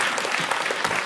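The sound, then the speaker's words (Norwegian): Sustained applause from a large crowd at a Church of Norway assembly right after a vote of 83 to 29 adopting a proposal, dense and steady clapping filling the whole brief moment at a fairly loud level, with no voices standing out. “Dette er lyden av et historisk vedtak for Den norske kirke.”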